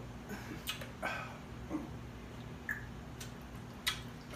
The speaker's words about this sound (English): Let me drink some more clear bottle water.